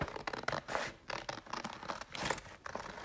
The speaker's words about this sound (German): So, jetzt schneide ich erstmal das Ding aus, ganz grob und richtig hässlich. Also ich habe jetzt hier so ein weißes Stück Papier.